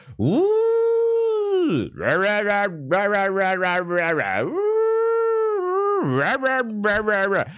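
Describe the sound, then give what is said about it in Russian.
Someone imitates a wailing alarm siren with their voice, holding long, loud tones that swoop up and down, repeated several times with short breaks. “И недавно к этому добавилось, я вообще не понял, просто какие-то звук тревоги. У-у-у, сирена.”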